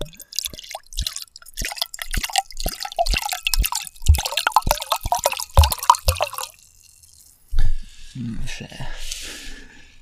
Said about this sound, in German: Ich habe fast wieder perfekt gleich hoch eingeschenkt.